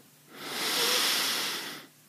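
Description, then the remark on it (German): A slow, steady nasal inhale during a guided deep-breathing exercise, rising gently in a soft hiss and fading out after about a second and a half, with no talking. “Wir atmen ein durch die Nase.”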